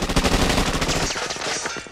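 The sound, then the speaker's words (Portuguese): Rapid bursts of gunfire crackle in a dense, continuous volley for about two seconds, sharp repeated reports blurring together loudly with no voices heard. It is the 1978 shooting in which temple security guards opened fire on Congressman Leo Ryan's departing group, recorded on video by a journalist. “Os seguranças do templo perseguiram eles e abriram fogo contra o grupo.”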